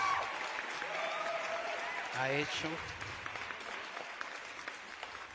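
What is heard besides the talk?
audience applause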